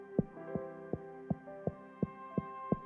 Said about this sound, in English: Bible says he stands at the door and knocks. What does that sound like?